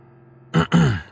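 A couple of short, rough coughs in quick succession, the second longer and throatier, breaking out after a moment of near silence with no talking around them.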